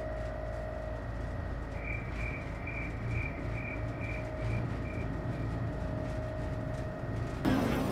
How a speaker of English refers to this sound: Wow, this door is really slow. I forgot to pay the electric bill.